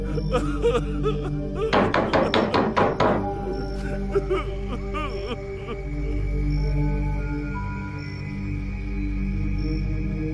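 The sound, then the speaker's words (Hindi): Loud pounding on a door: a quick burst of roughly eight heavy, rapid thumps, followed by a steady low droning background with no more knocks. “कोई जवाब न पाकर उसने दरवाजे को जोर जोर से पीटना शुरू कर दिया”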